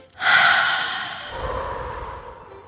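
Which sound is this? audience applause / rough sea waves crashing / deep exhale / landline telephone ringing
deep exhale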